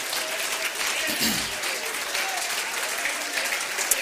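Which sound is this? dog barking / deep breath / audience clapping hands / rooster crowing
audience clapping hands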